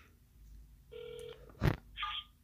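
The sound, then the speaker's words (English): A single electronic telephone ringing tone sounds for about half a second as a listener's cell phone is dialed, followed by a sharp click and a brief burst of noise, then another short tone over a low background hum. “oh, it's ringing. It's ringing.”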